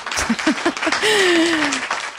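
A single person claps their hands about five times in a quick burst, giving themselves a round of applause, then a short sustained vocal tone follows as the clapping stops.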